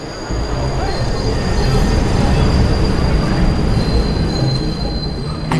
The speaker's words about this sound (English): And they put me on the Metro North train from Bedford Hills to Grand Central Station.